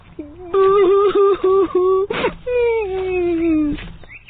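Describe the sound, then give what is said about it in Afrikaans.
Loud wailing sobs: a string of short, pulsing whimpering cries, then a sharp gasp and one long drawn-out moan sliding downward, like a voice imitating an elephant crying, the crying of Tannie Flapoor, aunt of Ollie the elephant. “Olie die olifant se groot olifantore hoor van ver af hoe dit aan die flap oor huil.”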